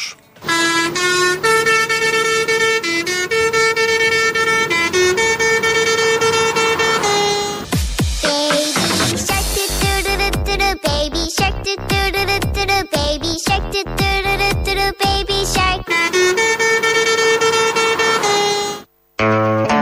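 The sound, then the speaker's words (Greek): Loud tractor horns, driven around by farmers, blare out a rhythmic pattern of sustained and short honks in a well-known musical rhythm, with a choppy burst of rapid toots in the middle before the steady melodic horn returns. “Έτσι λοιπόν έχουν και κέφι, όπω πάντα οι αγρότε, και κυκλοφορούν τα τραχτέρ με τι κόρνε σε γνωστού μουσικού ρυθμού.”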